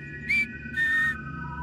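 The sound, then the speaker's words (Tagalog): Two eerie whistles in quick succession, a short high note followed by a longer sustained one, standing out clearly over a low, rumbling background. “sa pwesto namin ay nakarinig na naman kami ng mga sipol.”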